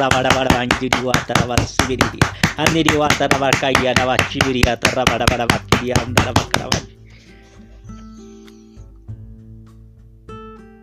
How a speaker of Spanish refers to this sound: Damos fuerte, fuerte el aplauso para la palabra del Señor.